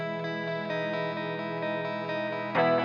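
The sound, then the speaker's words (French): Rock music from a Manchester rock band's ninth album since 1991, with a thick, distorted electric guitar holding sustained chords at a steady, full volume, surging louder at the very end; no singing is heard. “Le titre que j'ai choisi de vous faire écouter s'intitule … et c'est le son de la semaine sur Radio Phoenix”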